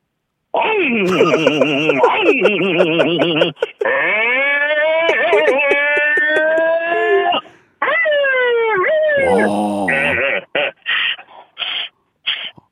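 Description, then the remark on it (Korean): A man vocally imitates a Lamborghini sports car engine revving with rising, warbling tones, then shifts into a wailing impression of a police car siren following behind, loud and continuous with brief pauses between phrases. “땡보르기니 땡보르기니 따라 따라가는 것부터 경찰차까지만 다시 한번 해 보겠습니다.”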